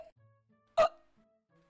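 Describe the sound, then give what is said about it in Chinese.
A sharp, loud hiccup from the story character Hui Zhujian after a fit of laughter bursts out of near silence, and a second hiccup starts just as the sound cuts off. No one speaks. “听完妙妙鸭的故事，只见灰猪见一阵大笑后，不断的打嗝，停不下来的打嗝声，让灰猪见缓缓的降落。”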